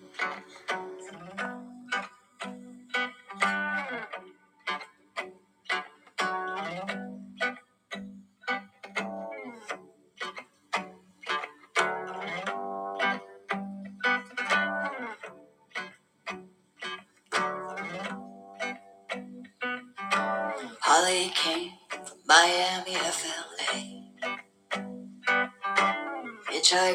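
A cover version of a song plays at a steady, moderate volume: a sung vocal line over rhythmic backing with regular beats, and brighter hissy accents near the end.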